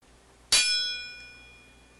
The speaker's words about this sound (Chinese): 与此同时，胡杨的剑光闪电般的撞到了他的剑上